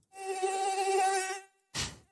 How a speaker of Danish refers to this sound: Det her, det var øh, marchmusik og lyden af myg.